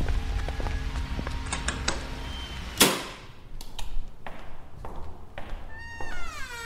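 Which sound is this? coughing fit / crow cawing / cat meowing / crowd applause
cat meowing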